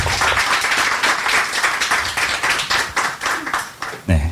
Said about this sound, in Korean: 여러분 김병관 국회의원님께 박수 부탁드리겠습니다.